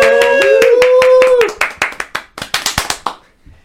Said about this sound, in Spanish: ¡Aplausos!